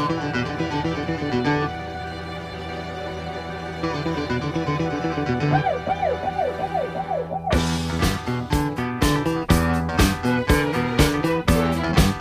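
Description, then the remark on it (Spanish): An instrumental music track plays on air with no talking: layered sustained chords, a wavering siren-like synth swoop midway, then a loud, steady drum beat kicks in with bright, punchy hits. “Vamos a poner un poco de música porque hoy, hoy nos traes una cosa que hoy sí que me ha encantado el tema, ¿eh?”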